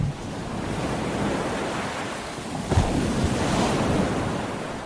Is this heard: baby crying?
no